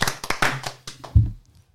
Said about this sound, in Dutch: Derde plaats. Goed verhaal. Applaus.